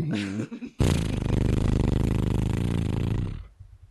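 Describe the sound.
A voice does a motorboat imitation: a short hummed lead-in, then a loud, steady buzzing lip-trill rattle lasting about three seconds before it cuts off.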